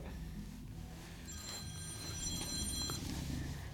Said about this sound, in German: Das ist mein Telefon? Ja.